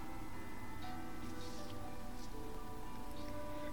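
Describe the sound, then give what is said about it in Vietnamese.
Steady rainfall hisses evenly throughout, a dense wash of drops with faint scattered patters on top, holding a constant moderate level with no voices. “mưa to dần dần ngớt xuống thành mưa nhỏ rơi tí tách”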